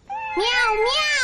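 A cat meows loudly in a long, high, wavering call that rises and falls, with a second meow overlapping it partway through. No talking can be heard.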